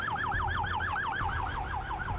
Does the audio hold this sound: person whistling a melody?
no